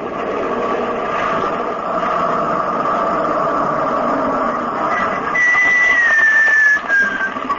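truck engine running

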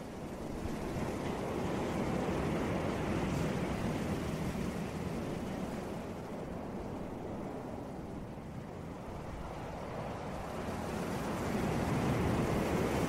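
ocean waves

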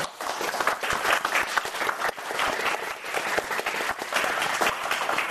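audience clapping

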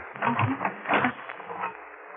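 key turning

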